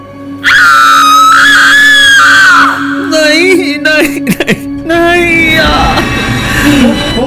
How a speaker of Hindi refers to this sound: प्रिया बर्तन में रखे श्रीराम के सिर को देखकर चीखने चिल्लाने लगती है